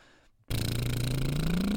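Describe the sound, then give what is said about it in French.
A buzzing lip trill, done as a voice warm-up exercise, mimics a small motor, starting abruptly after a brief silence and holding steady with a slowly rising pitch for over a second. “Ensuite, on peut faire un. Un petit moteur comme ça.”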